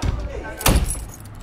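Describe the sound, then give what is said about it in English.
A short metallic jangle of keys as a man fumbles for his car keys and gets into his car, with a dull thud partway through and soft background noise around it. “Mike fumbles for his keys and gets into his car.”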